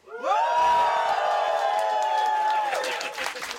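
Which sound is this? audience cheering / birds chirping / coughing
audience cheering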